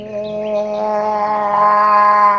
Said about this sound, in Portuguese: A araponga dá o cagaço. É tipo essa araponga Nossa, que vocês comentaram, campo, assim, né? Não sabia que tinha uma araponga e aí de repente ela tava no açaí do teu lado é. e tu toma um cagaço que você não é sonha.